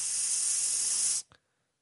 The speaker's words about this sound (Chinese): 有着引信呐，燃烧的声音啊！